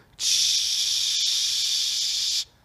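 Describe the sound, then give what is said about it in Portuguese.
A voice imitates a running bathroom sink faucet with a steady hissing rush that starts abruptly, holds evenly for about two seconds, then cuts off, with no other sounds around it. “Abri a pia.”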